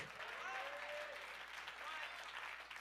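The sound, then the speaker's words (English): An audience claps their hands unto the Lord in praise, dense clapping filling the whole clip at a constant loud level, with voices calling out and rising tones woven through the noise. “Somebody clap your hands unto the Lord and give Him praise.”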